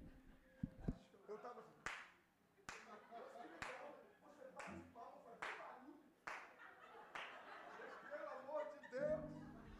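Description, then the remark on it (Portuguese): Roughly seven sharp hand claps ring out at a steady, slightly uneven pace, loud, while people talk and chuckle underneath. “Que eu não, não consigo ficar quieto, eu tenho que bater palma.”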